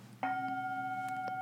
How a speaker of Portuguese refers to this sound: Esse é o som do sino. Só que você não vê como é que você bate no sino.